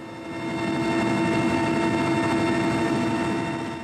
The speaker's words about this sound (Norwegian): Både vi journalister som er på besøk på de nye oljefeltene, og arbeiderne som jobber her, blir fraktet over de endeløse viddene med helikopter.